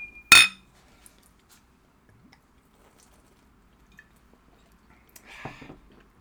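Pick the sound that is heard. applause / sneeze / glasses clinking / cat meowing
glasses clinking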